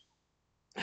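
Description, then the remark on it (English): A single sharp sneeze bursts out after a moment of near silence, loud and abrupt, with no talking around it. “Bless you.”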